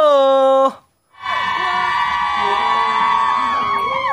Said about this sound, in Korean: 어때요? 팬분들의 또 함성 들으니까 좀 힘이 나죠.